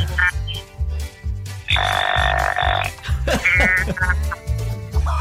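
A deer calling in a steady series of harsh, low, croaking grunts, loud and evenly paced, with a brief buzzy rasp partway through and no voices.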